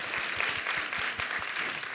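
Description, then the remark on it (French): An audience claps steadily for two seconds, a dense, even wash of many hands with no voices over it, as the crowd votes by applause in a poll on whether to say "Boyard", as in Fort Boyard. “Par applaudissement, qui dit boyard”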